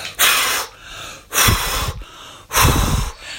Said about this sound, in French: soufflez trois fois.